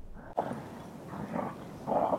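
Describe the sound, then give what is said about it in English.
Dogs bark and whimper a few times in short, fairly loud bursts, with a noisy, restless background between the calls. “Dogs, be quiet.”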